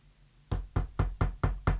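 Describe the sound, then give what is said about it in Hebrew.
Six sharp knocks on the door of Bathsheba's house in a quick, even rhythm, each a solid thud with a bright attack, following a short stretch of quiet. No one speaks. “דפיקות בדלת.”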